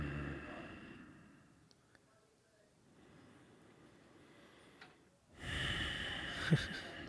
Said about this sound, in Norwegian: Ja, det at jeg bare Ehm, sitter der og puster nå, mm.